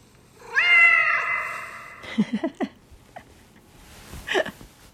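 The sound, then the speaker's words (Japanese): A cat named Maf gives one long, drawn-out meow with a reverberant, echoing quality, followed by a few short knocks and a fainter second cry near the end. No one speaks. “今の今のエコーの聞いたマフの声を聞いてルパンくんがキョロキョロしておりました”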